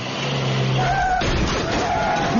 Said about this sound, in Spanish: Coche.